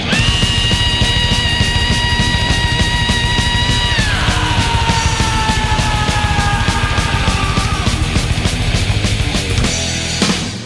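A thrash metal vocalist lets out a long, piercing scream over pounding fast drums and distorted guitars, holding it for several seconds before sliding down in pitch and sustaining it further.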